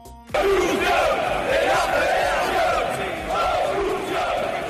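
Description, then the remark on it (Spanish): A large crowd of Real Madrid football fans chants in unison outside and inside the Bernabéu stadium, a loud, sustained roar of many voices with a rising and falling rhythmic cadence that continues throughout after an abrupt start. “Es el grito de los madridistas que ayer lo gritaron fuera y dentro del Bernabéu.”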